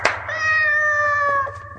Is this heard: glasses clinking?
no